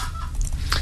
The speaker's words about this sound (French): vous, inquiétez pas, hein, ce qui grince, c'est la chaise de Rudy.